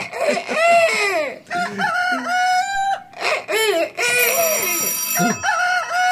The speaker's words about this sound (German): Dann öffne mir das Fenster und lass mich krähen, was das Zeug hält. Okay, Digga. Los geht's. Kikoriki! Kikeriki! Lustig, ein Kater, der kräht.